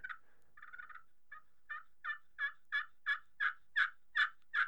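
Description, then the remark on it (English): A wooden pot-style turkey call with a copper calling surface, worked with a striker, starting with a few soft clucks and rolling into a steady run of about ten raspy yelps that grow louder, with no talking. “And then with that copper calling surface on it, it's even that much prettier. Very good looking mm-hmm. striker as well. And the thing sounds good.”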